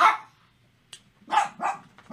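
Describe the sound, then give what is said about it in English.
Several sharp barks from the speaker's dogs, an initial bark followed by a quick run of three more in uneven rhythm, with brief quiet gaps between them and no talking. “My dogs agree that Jose Altuve and Jeremy Pena are amazing.”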